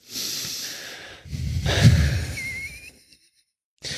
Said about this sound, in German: So, wir atmen jetzt einmal tief durch.